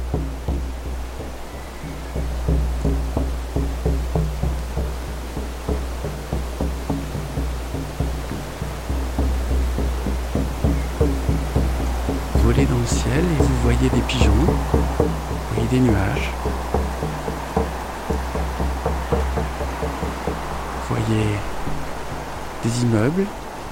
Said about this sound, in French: J'ai l'impression qu'il y a du vent ou qu'il pleut.